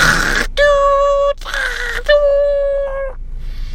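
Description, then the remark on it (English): A voice imitates a dial-up modem connecting to the internet over a phone line, alternating harsh hissing bursts with steady, buzzy electronic-sounding tones, two cycles in a few seconds, fairly loud, ending in a faint hiss. “the dial up is the one that you connect to the internet, but then the phone, when you pick up, you give like the sound.”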